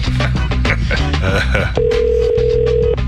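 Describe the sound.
A steady electronic phone ring tone of a call placed to a listener, before pickup, sounds once for about a second, loud, over a busy background of music and voices.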